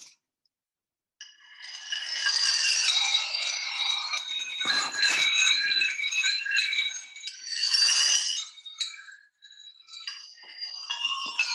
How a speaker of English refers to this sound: And then there will be a solo version of this uh, but it's a little bit tricky because he wrote the piece for these tiles. So, you know, can you get a D sharp, a D quarter sharp tile in exactly these, this size and shape?